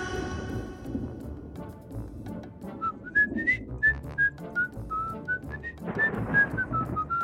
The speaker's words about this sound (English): Wait a minute. Did y'all hear that? It sounded like distant whistling.